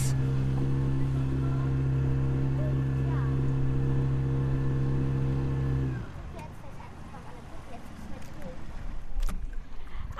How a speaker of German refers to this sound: Und jetzt machen wir die Leinen los. Leinen los! Und jetzt fahren wir los.